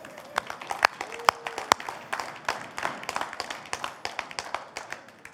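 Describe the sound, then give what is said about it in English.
An audience at Revelation Rock applauds the team steadily, many hands clapping in a dense, irregular patter of sharp smacks that holds at an even, moderate level throughout, with no speech over it. “Team a round of applause.”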